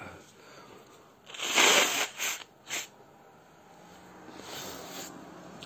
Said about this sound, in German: Ich glaube, ich muss mal eben ganz kurz die Nase putzen. Moment. Ah.